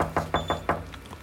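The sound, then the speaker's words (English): A quick series of firm knocks on a first-floor condo door off a carpeted hallway, four raps followed by a couple of softer ones, with a faint high-pitched beep sounding briefly in the middle. No one speaks. “We knocked twice.”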